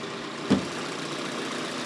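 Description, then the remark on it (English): A car engine idles smoothly with a steady, even hum throughout, broken only by one short click or knock about a quarter of the way in. No one speaks. “Hear it? Purring like a kitten.”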